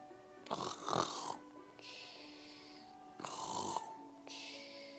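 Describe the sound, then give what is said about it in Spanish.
Loud, rasping snores repeat in a steady cycle of harsh, buzzy inhales and breathy exhales, about four in a row. It sounds like a voice imitating the snoring of a very fat man, Mr. Inflón, asleep in a house at night. “Pronto comenzó a roncar.”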